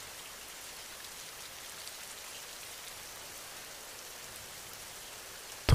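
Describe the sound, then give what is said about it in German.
Steady rain falling on the ground, a continuous soft hiss of countless drops with no pauses, fairly quiet and even throughout, with no voices. “Höre genau hin, wie das Geräusch entsteht, wenn der Regen auf den Boden trifft.”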